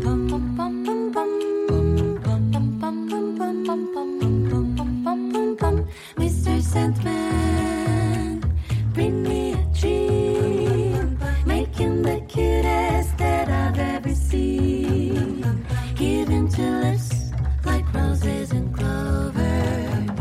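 A listener-requested pop song is played on a Saturday night radio music program, loud and continuous for the whole stretch, with layered melodic parts and a steady bouncing rhythm. Nobody talks over it.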